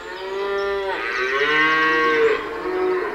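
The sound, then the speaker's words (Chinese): Cattle mooing as a herd is driven out to graze, a long, loud, drawn-out low call with rich harmonics, the pitch rising and then falling back, heard alone without any talking. “有一天，当他赶着牛群去吃草的时候”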